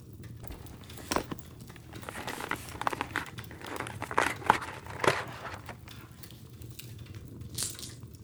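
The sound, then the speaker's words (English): Paper crinkles and rustles as a gift is unwrapped, a run of uneven crackling bursts with a few sharper tears and rips, no voices. “Open it and you'll find out.”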